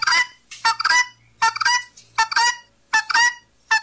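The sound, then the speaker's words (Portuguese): Guinea fowl calling loudly, a series of harsh, raspy squawks arriving in quick paired bursts with brief pauses between them, no voices present. “É muita sacoé querendo ser galinha balão, viu?”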